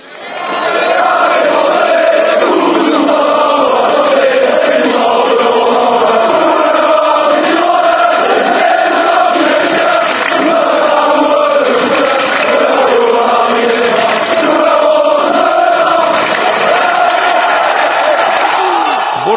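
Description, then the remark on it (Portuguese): A large crowd of Girondins de Bordeaux football supporters chants in unison in a stadium, a loud, steady wall of many voices carrying a sung melody with no break for the whole stretch, rising and swelling in waves. “vous, tous ensemble, on va chanter.”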